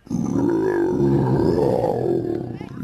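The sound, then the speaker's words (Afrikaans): A deep, gravelly lion growl rumbles loudly and holds steady for nearly three seconds, low and throaty, with no words spoken. “Hy grom diep uit sy bors uit en kyk kwaai met sy groen oë na Simeon wat in die middel tussen hom en Manie Muur staan.”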